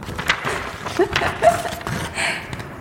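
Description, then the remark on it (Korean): Crisp paper rustling and crinkling in several short bursts, with soft scratchy handling between them and no one speaking. “아, 일단 종이 소리부터”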